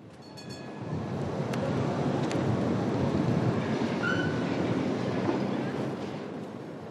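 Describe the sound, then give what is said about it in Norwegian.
A worn old tram rumbles past at the corner of Galitskaja and Berundaja streets in the old town of Lviv, Ukraine. Its broad rolling roar swells up and then fades, with faint metallic squeals and a brief high whine from the wheels on the rails. “En sliten trikk kjører forbi meg da jeg står på hjørnet av Galitskaja og Berundaja-gatene i gamlebyen i Lviv.”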